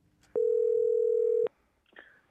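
A phone call rings out with one long, steady electronic ring tone, loud, then stops, leaving only a faint rustle and click a moment later.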